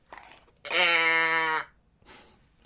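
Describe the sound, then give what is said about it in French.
One loud, drawn-out cow moo lasting about a second, steady and strongly tonal, set between brief faint noises just before and after it. “Ça, c'est pour te réveiller et que tu saches qu'à chaque fois que tu entends un gros meuh, on change d'époque.”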